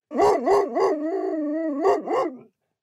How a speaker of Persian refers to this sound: ساعت هفت نیم رفتم توی راه چهار تا سگ دیدم که به من حمله کردن و من فرار کردم و به خونه برگشتم